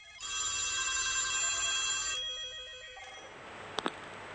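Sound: telephone ringing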